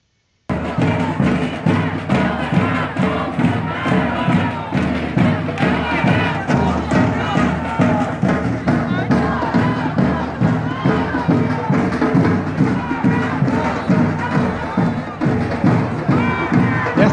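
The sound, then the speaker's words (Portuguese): A large crowd at the start of a protest march in central Porto Alegre, Brazil, moving up Avenida Borges de Medeiros, roars and shouts together, dense and loud throughout, with rhythmic chanting pulses and thumping beats running under the steady wall of voices. “essa foi a largada, gente. A largada da caminhada.”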